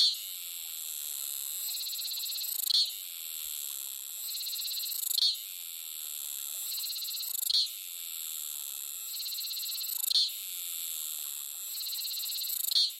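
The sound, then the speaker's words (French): A cicada (Tana ventriroseus) sings alone in a continuous shrill, high-pitched buzz that swells and fades in a steady cycle about every two and a half seconds, each swell ending in a sharp click; the sound is produced by two small plates at the start of the abdomen. “notamment sur les cigales. Leur son est produit par deux petites plaquettes qui se trouvent au début de l'abdomen”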